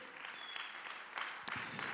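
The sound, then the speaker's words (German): Audience applause at a church service in Nürnberg, given for friends joining online from Ansbach and Erlangen: a dense, steady wash of many hands clapping at once, holding fairly loud throughout with a few sharper claps and no talking. “Komm, wir geben mal hier in Nürnberg unseren Freunden in Ansbach und Erlangen noch online nochmal einen Riesenapplaus.”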